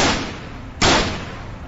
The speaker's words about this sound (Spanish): Se dirigió hacia el comedor y mató a su esposa de dos escopetazos.